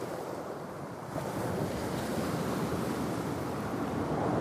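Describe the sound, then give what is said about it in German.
Steady wind roars over crashing surf on the island of Tubuai, a dense, continuous wash of noise that swells slightly after the first second and stays loud, with no voices. “Wind fegt über die Brandung.”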